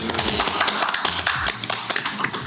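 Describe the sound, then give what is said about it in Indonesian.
A burst of hand clapping from a small group, dense overlapping claps at a steady level lasting a couple of seconds, with no voices over it. “Karena sudah berjuang demi kelompok kita Oke, tepuk tangan dulu.”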